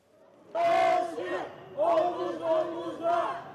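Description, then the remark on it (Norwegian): A crowd of protesters in Turkey, demonstrating against Prime Minister Recep Tayyip Erdogan, chants slogans at the police and authorities in loud, rhythmic bursts, several voices shouting together in three or four strong phrases with brief dips between them. “En gruppe demonstranter roper slagord mot politiet og myndighetene, men de nøyer seg ikke med det.”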